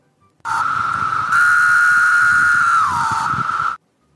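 A lone periodical cicada sings a steady, loud, high-pitched droning whine for about three seconds, swelling slightly in the middle and dipping in pitch before cutting off abruptly.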